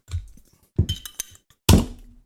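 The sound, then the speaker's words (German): A Super Bock beer bottle being opened: a handful of hard thunks and glassy clinks in quick, uneven bursts, the last one loudest with a brief rattling fizz, and no clear pop. “Ich mach mal auf, ne? Ich mach auch mal auf, ja.”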